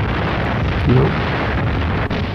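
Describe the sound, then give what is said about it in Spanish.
A loud, sustained roar of explosions, dense and rumbling, from German aerial bombing at night at Potsdam, with planes dropping bombs that fall about 50 metres apart, filling the whole moment with no clear pauses and no voices. “Y vos, vos eh, escuchabas que venían los aviones y después escuchabas boom, boom. Cuando largaban las bombas, cada bomba caía más o menos a 50 metros de la otra.”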